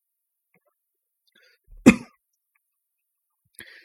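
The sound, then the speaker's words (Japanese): A single sharp cough with a throaty rasp breaks the quiet, followed a couple of seconds later by a faint, brief throat-clearing sound. No one speaks. “咳き込んでしまいましたね。”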